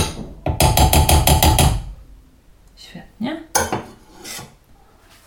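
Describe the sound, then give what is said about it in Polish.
A spoon stirs a second portion of flour into dough in a bowl, making a quick run of rhythmic scraping taps for over a second before stopping, followed by a person speaking briefly. “Znowu powtarzamy procedurę z rozprowadzaniem mąki w cieście najpierw łyżką, żeby częściowo związana nie unosiła się zewnątrz naczynia.”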